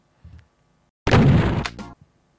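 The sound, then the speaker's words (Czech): A video-game building explosion: a sudden, loud crunching blast with crackling debris that lasts about a second, then cuts off sharply. A couple of soft thuds come before and after it. “No tak, Počkej, to, to je výbuch.”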